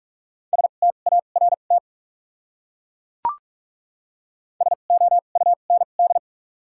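Rapid Morse code beeps at 45 words per minute, with doubled character spacing, from a single steady tone spell out a word in two quick bursts, with a short click in the silent gap between them. No one speaks.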